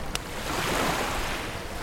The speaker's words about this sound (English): A small wave splashed against the side of the promenade and threw spray over the railing.